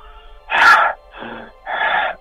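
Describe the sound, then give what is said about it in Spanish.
A person imitates the panting of a very large dog that passed along the street at night as if it had run a long way, with three heavy, breathy huffs in a steady rhythm, fairly loud, with short pauses between each breath. “Y, y te comento que muy grande porque el jadeo, el jadeo fue realmente como de un perro grande, o sea, fue un”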